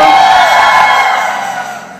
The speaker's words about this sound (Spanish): ¿cuántas han ido a retiro espiritual? Levante la mano, el grito de júbilo de las de retiro.